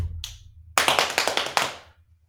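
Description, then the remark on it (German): Shredded cabbage being pounded for sauerkraut in a 10-liter pot: a quick run of about six dull thumping blows in steady rhythm, trailing off into quiet, with no talking. “So, dann klopf du mal.”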